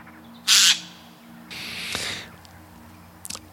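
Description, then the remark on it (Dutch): A rook caws three times: a short loud burst, then a longer, hoarse drawn-out call, and finally a brief fainter one, with a low steady hum in the background. “En ehm, roeken eten trouwens niet alleen zaden, maar eten ook gewoon insecten.”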